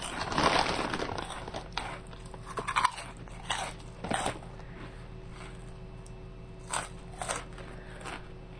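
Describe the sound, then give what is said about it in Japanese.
Someone munches a crunchy snack, with loud bursts of crackling bites early on, then sporadic softer crunches spaced a second or so apart, with no talking. “あなたも今日お菓子食ってたらあかんやんか。”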